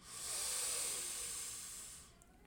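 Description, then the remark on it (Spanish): A single long, forceful breath pushed out through the mouth during a breathing exercise, a loud airy hiss lasting about two seconds before fading, with no talking. “cuando vayas a votar la expiración, la botas por tu boca y la botas muy fuerte.”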